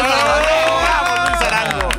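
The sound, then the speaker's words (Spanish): A crowd cheers and claps loudly and continuously, with voices raised in a sustained roar over a steady, thumping low beat that pulses about twice a second, welcoming a guest on the show ZDU al aire. “¡Aplausos!”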